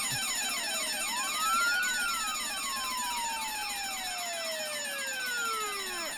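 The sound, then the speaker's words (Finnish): An alarm rings continuously with a wailing, siren-like tone that sweeps up and down in pitch, loud and steady for several seconds with no voices. “No nyt sehän hälytys sitten soittaa ja tuolta tulee poliisi.”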